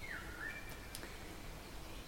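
Faint birdsong outdoors, a few short chirping phrases early on over a steady low background hush, with no voices.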